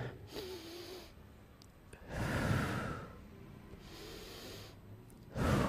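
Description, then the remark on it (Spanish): Slow, deep breaths drawn in and pushed out, each one a long airy whoosh, with quiet pauses between. No one speaks. “Dejas de respirar. La respiración tiene que ver con Hashem.”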